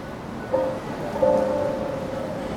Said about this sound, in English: Gonna make my way through this this rain here.